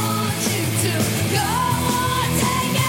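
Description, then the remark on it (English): Loud, dense rock music, an opening track, with distorted guitars and heavy drums filling the whole clip, topped by a raw, screamed vocal that strains and holds a high note partway through. “Listen to this, Violet. Great starter. Yeah, it's a great opening track.”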